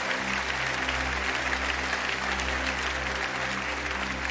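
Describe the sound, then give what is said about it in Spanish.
An audience claps for the Lord steadily throughout, a dense, continuous wash of many hands with no break, loud and sustained from start to finish, with a low hum underneath. “Vamos a darle un aplauso grande al Señor de señores por este vuelo maravilloso que es la vida.”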